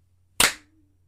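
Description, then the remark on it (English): A single sharp hand clap after a three, two, one countdown, made to sync a recording, bright and loud with a quick decay, set against a low steady hum and otherwise silence. “Last time we clapped, we broke the connection.”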